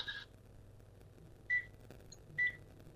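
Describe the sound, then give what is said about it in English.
A telephone rings with three short electronic chirps, spaced unevenly about a second apart, moderately quiet over a low background hum with no talking. “Oh, there's the phone again.”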